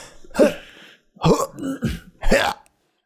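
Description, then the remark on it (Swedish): A voice imitates a video game character's grunts: a series of short, guttural, throaty bursts, about four of them, fairly loud, with no ordinary speech. “Ja, och att han grymtar lite mer så.”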